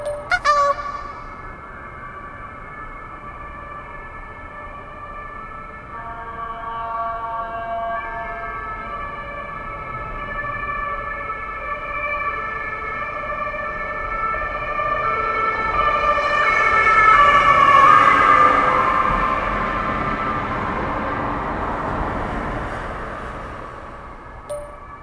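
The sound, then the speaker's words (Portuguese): An emergency vehicle siren wails continuously, growing louder as it approaches, peaking, then easing slightly as it moves past, with faint road noise underneath and no talking. “O som de sirene é o clímax dos meus dias.”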